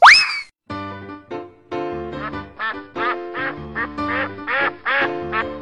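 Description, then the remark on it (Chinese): A duck quacks in a quick, steady run of about a dozen loud, nasal, buzzy calls, opening with a short rising squeak; no one speaks. “嘎嘎，我是鸭子，我喜欢听音乐、玩滑板。”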